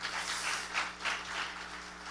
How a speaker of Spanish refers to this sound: Un aplauso al Señor. Amén.